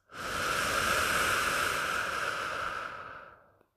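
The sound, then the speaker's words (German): A long, deep exhale of about three and a half seconds during a breathing meditation, breathy, with a steady airy rush that slowly tapers off at the end. No talking. “atmet einmal tief ein, nehmt einen tiefen Atemzug, am besten durch die Nase und atmet wieder aus.”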